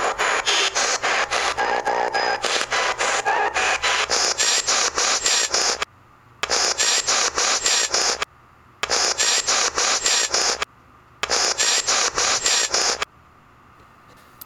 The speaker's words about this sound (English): This is this is a four word response. Okay. And it came over in the frequency of the white noise being manipulated.